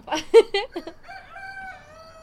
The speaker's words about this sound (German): Also, wir entschuldigen uns im Vorhinein schon dafür, dass wir vielleicht jetzt für die ganze restliche Podcast-Folge einen Hahn haben.